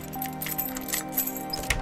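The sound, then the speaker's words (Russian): Keys jingle and clink in a few quick metallic bursts as a key kept beside the door is used to unlock the door of a room in a seaside house at sunset, over a steady low background hum. “Мы обычно ключ оставляем около двери. Достаем его и входим.”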